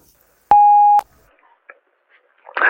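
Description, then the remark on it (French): A mobile phone in a studio apartment alerts once to an incoming voice message with a single steady electronic beep lasting about half a second, followed by faint small rustles before a voice begins at the very end. “Arrivée dans son studio, son téléphone vibre.”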